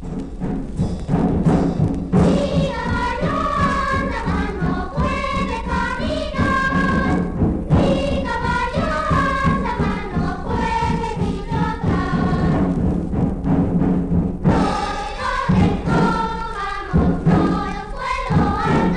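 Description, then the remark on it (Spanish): Children sing a lively children's game song over the steady, booming beat of a large wooden huehuetl drum, the voices and drumming loud and continuous with brief pauses between phrases. “escuchemos el juego infantil de Mi caballo con Huehuetl”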